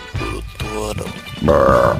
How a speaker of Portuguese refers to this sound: Isso. Que arrotão, hein